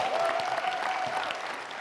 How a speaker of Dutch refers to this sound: Mag ik alsjeblieft een groot applaus voor de band die hier stond?